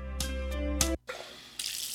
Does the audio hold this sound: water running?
yes